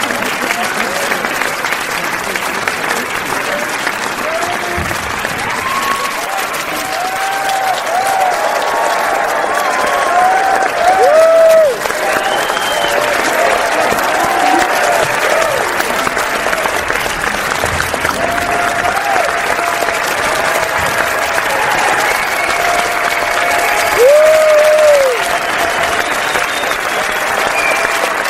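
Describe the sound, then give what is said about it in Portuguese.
Sustained audience applause after Kiara Huerta is introduced, the last of several people presented, a dense steady wash of clapping lasting the whole stretch, with scattered whoops and cheers rising above it now and then. “Olha só, acho que os aplausos foram mais longos para Kiara, né?”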